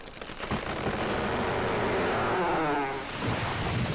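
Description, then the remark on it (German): A loud crash as something heavy topples inside a circus tent, followed by several seconds of sustained rumbling clatter with a grinding, scraping tone near the end. No voices. “Irgendetwas Schweres sein, scheint herunter oder umgefallen zu sein.”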